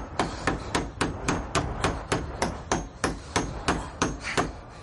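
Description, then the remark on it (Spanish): A hammer drives a nail into a second piece of wood being nailed onto a door, with a quick, steady run of about fifteen sharp, ringing blows at an even rhythm, loud and clear with no voices. “Clavan otro trozo de madera.”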